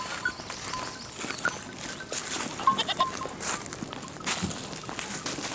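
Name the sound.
goats bleating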